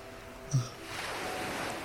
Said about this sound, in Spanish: El tiempo no pasa entre estas piedras y sus olas eternas, reflexionó.